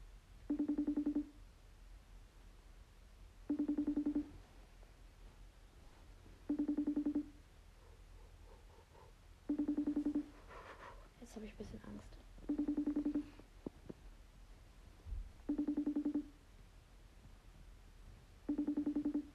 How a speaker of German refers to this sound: Ich rufe es jetzt einfach nochmal an.